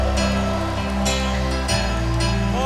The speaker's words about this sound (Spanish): Vamos, dale un fuerte aplauso.